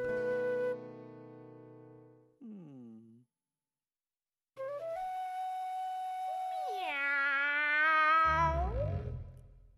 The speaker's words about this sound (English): No, George. Cats go meow.